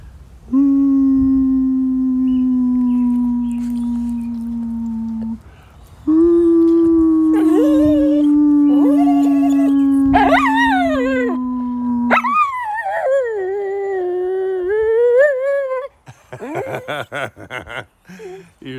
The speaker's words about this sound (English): Okay, Rainer, do you want to howl?